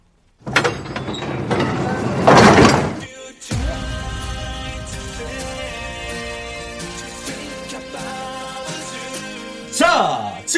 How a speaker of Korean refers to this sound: 저는 눈을 질끔 감고 188과 186의 강요로 폐역사 버려진 기차의 3호차 문을 열어 젖힙니다.